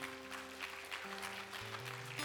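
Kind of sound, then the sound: crowd, audience clapping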